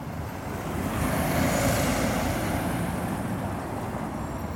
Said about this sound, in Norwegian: På Place de la Bastille i Paris, der Bastien opprinnelig sto, er det i dag en tungt trafikkert rundkjøring.